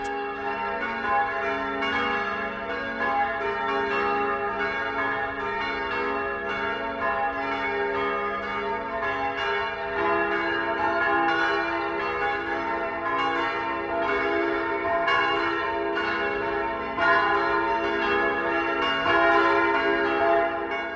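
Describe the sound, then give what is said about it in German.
The bells of the Basilica of St. Ulrich and Afra in Augsburg, Bavaria, ring the 12 o'clock midday peal together, overlapping strikes blending into a rich, steady wash of low and high tones that stays loud throughout with no voices. “Das Mittagsläuten kommt heute von der Basilika St. Ulrich und Afra in Augsburg.”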